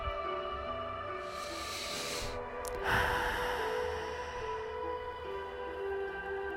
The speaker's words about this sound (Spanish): Toma nuevamente una respiración profunda.